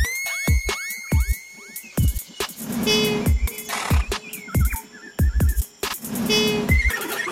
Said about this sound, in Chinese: 你没有听过无尾熊的叫声吗？